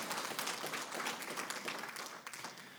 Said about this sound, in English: Yeah, go ahead and clap again. Give yourselves a hand.